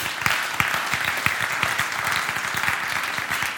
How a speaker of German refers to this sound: Ja, dazu kann man klatschen, weil genau das stimmt.